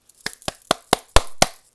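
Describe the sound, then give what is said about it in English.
Six sharp hand claps in a steady, fairly quick rhythm, each a crisp slap that stops almost at once, with silence between them and no talking. “clapping right for you because you got this.”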